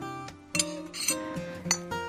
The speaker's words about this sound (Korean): 커피잔 부딪히는 소리는 사람 목소리 같아요.